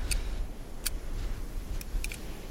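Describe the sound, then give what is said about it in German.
A handful of sharp, dry clicks of a lighter and the rasp of its flint, spaced irregularly with a quick double click near the end, against a low background rumble with no one talking. “Ihr hört das Klicken eines, äh, eines Feuerzeugs und das Ratschen eines Feuersteins”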